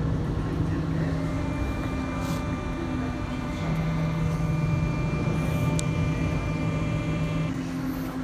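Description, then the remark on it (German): An automated people-mover train pulls into a station, a steady, loud mechanical rumble with sustained electric whining tones, continuous throughout, with no clear talking. “So, da kommt der Pissmover.”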